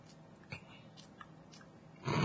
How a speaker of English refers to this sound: That's it. Just trying not to chew loudly.